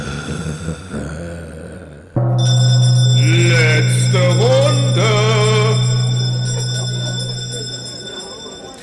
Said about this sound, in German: So, ähm, das war's. Wir läuten die Glocke zur letzten Runde.